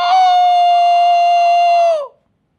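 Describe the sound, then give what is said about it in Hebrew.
A single loud, sustained vocal cry imitating a rooster's crow, shouted by a young village boy in a synagogue during prayer, held steady for about two seconds before dropping off abruptly into silence, heard alone. “קוקוריקו! כולם מסתכלים, מה קרה? מי צועק פה? איזה תרנגול?”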